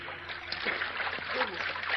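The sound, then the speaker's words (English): Vast ocean water heaves and splashes at night under starlight in a steady, continuous wash, sloshing moderately loud for the full two seconds, with no clear separate waves standing out; three people are awash in the water after a yacht has sunk. “Then, when the yacht is gone, there is only the faint, pale radiance of the stars over the three tiny human figures awash in the vast, heaving ocean.”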